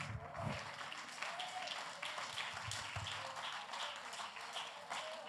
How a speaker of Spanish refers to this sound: Den un aplauso al Dios Dios de la gloria.